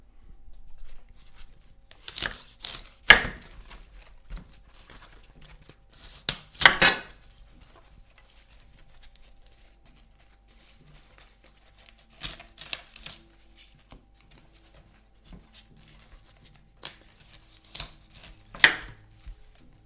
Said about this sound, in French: Avant de les laver, on prend le chou-fleur entier et on enlève les, les plus grandes feuilles qui sont autour. On les enlève pas toutes quand même, on garde les plus petites.